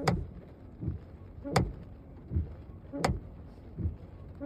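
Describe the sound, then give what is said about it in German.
After a long drive in the rain, a windscreen wiper knocks against the window frame in a steady rhythm, a sharp loud clack about every second and a half with a softer dull thump between each, inside a quiet car. “Und ja, es klingt so, als würde der Scheibenwischer so gegen den Scheibenrahmen schlagen.”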